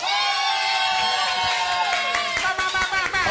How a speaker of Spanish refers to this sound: Ok, so, un aplauso para los Reyes Magos. un aplauso para Baby Jesus. Blasfemos, blasfemos. Un aplauso para Santa Claus.